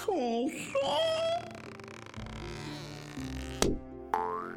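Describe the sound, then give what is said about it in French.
A springy cartoon boing with a wobbling pitch sweep rings out at the start as a clown drops from the ceiling and bounces on the floor, followed by whiny, crying-like vocal sounds and a sharp click, all fairly loud. “Le clown se détacha brusquement du plafond, rebondit sur le sol et se stabilisa devant le jeune soldat.”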